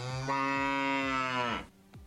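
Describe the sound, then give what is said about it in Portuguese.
A single long, loud cow moo sound effect, played on cue during a show, with a deep harmonic drone that swells and then drops off sharply, followed by a brief quiet tail. No talking. “Solta o boi, Marcelão.”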